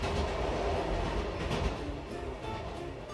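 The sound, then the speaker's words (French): A train running from the Gare du Nord to L'Isle-Adam rolls along the rails with a steady, loud rumble and a faint rhythmic clatter of wheels over track joints, heard for a few seconds with no voices. “Dans les gares, des affiches vantent même les trains qui partent spécialement de la gare du Nord pour arriver à l'île Adam en 37 minutes.”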